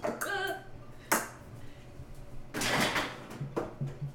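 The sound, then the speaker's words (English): Ice cubes clink and crackle as they are put into a full glass of whiskey to chill it, with a few sharp ringing knocks followed by a brief fizzy crackling burst, faint room noise underneath. “Could you guys hear that crackle?”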